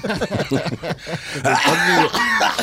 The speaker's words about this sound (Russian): кашляет в сторону профессора.